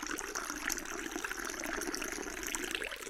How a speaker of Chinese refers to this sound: 刚进女厕所，没等着尿呢，里边有个女的搁那尿尿啊。